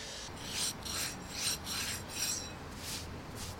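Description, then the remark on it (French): A sculptor's rasp scrapes across stone, removing a thin excess layer to restore the ornaments around the spire of Saint-Martin church, Sartrouville, Yvelines, built in 1009: a steady back-and-forth rhythm, each stroke a bright, gritty hiss, about six strokes with short pauses, no voices. “Avec une râpe, j'essaye d'enlever la petite couche de pierre qui est en surépaisseur pour attraper le parement de la pierre en fait pour restaurer toute cette partie,”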